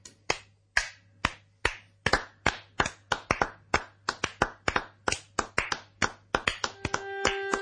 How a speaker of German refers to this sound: Kannst du weiter klatschen, bitte?